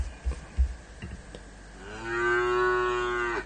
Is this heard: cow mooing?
yes